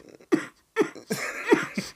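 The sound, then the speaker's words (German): A voice imitates a cough held back inwardly at night, into a pillow: several short, strained, muffled bursts pushed through a closed mouth, uneven in rhythm, with breathy pauses between them. “Ich musste innerlich husten.”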